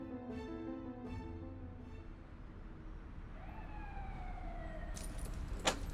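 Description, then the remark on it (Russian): Keys jangle briefly near the end with a bright metallic rattle as they are handed over, set over a steady background of wailing, siren-like tones and low rumble. No one speaks. “Вот ключи.”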